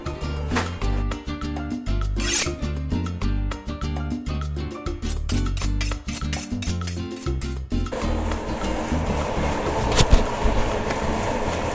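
Tonal music plays for several seconds, then gives way to a coffee roaster running: a steady, loud mechanical whir and rumble with a faint rattling of tumbling beans. No one speaks.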